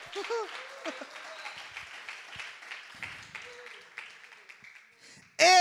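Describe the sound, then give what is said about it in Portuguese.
A crowd applauds with a steady, dense wash of clapping, mixed with scattered voices and cheers, before a sudden loud burst cuts in at the very end. “Você pode dar uma salva de palmas aí onde você está?”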